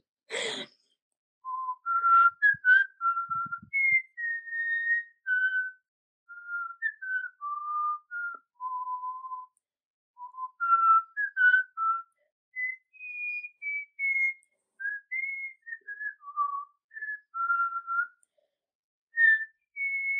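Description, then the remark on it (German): Someone whistles the Harry Potter film theme, a flowing tune of clear sustained notes that step up and down through a moderate range, held for about twenty seconds with only brief breaths and no talking. “Harry Potter finde ich ganz krass schwierig. Mach mal bitte.”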